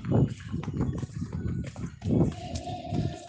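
Quick, heavy footsteps of someone running up stairs thud in a steady rhythm, fairly loud, with no talking over them.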